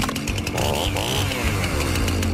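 A chainsaw engine roars steadily, its pitch climbing and dipping as the throttle is revved, a loud buzzing drone lasting a couple of seconds with no voices.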